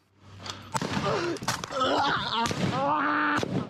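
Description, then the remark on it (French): Several sharp gunshots crack out at irregular intervals, loud and abrupt, mixed with tense shouting voices that fill the gaps between shots: attackers firing into a stairwell during an attack on a village, in video footage filmed by the assailant carrying the camera. “Mais dès qu'un doute survient, comme dans cette cage d'escalier, ils tirent.”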